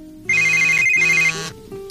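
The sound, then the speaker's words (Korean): A phone ringtone plays a bright electronic melody in two bursts with a short gap between them, loud, with no voices, for an incoming call from a friend asking about her dog Ttuttu. “아, 우리 뚜뚜 뭐 하나 생각나서 전화했지.”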